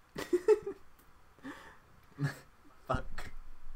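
Several short, abrupt hiccups, about five, come at uneven intervals from a person, each a quick sharp catch of breath with quiet pauses between and no talking.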